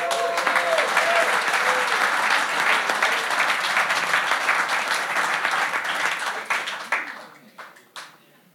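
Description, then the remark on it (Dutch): Sustained applause from an audience for columnist Jan Oudenaarde, a dense wash of many hands clapping at steady loudness for about seven seconds, then thinning into a few scattered final claps. “door journalisten, mensen die verhalen doorgeven van generatie op generatie die daar in de kranten over schrijven, een hartelijk applaus voor onze columnist Jan Oudenaarde.”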